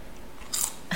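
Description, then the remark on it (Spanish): Crunchy bites into the belly of a large edible insect: two sharp, crackling bursts of crunching, the second starting right at the end, over a quiet background with no talking. “Muérdale nomás la pancita”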